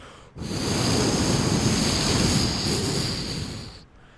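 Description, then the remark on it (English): Roaring hurricane-force wind, a dense, loud rush that starts abruptly, swells slightly as it rumbles on like a passing train, then drops away after a few seconds. No voices. “and you know you can hear it and when they say it sounds like a train, it sort of does.”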